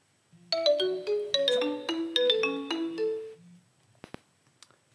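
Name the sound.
phone ringing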